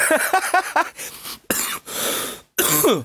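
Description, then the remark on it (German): A person coughs several times, with a harsh throat-clearing quality: a short choppy run of rasps followed by a few longer, breathy hacking bursts separated by brief pauses. “Husten zum Beispiel.”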